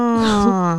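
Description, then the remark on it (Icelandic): An adult imitates a young son's whiny voice with one drawn-out, nasal whimper that wavers slightly and sags in pitch at the end. It is loud and alone. “búin að útskýra væluröttina”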